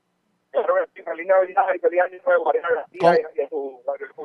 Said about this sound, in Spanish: le tengo que dejar porque la comunicación está pésima porque parece que las compañías de celulares están pésimas en el día de hoy.